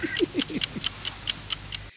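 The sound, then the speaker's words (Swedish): A clock ticks in a room in quick, even beats, each tick a crisp, fairly loud click, with a faint murmur of voice briefly underneath at the start. “Jag kan säga att jag sitter just nu i ett rum som har en ganska stark tickande klocka i bakgrunden.”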